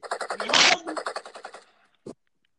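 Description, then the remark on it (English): Rapid bursts of gunfire sound effects rattle off in a fast, even rhythm with a louder blast in the middle, then fade, followed by one final short shot after a brief pause. “Yeah, with the gunshots in the background.”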